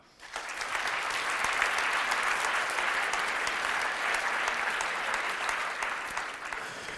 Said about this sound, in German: Einen großen Applaus für Mario Lochner.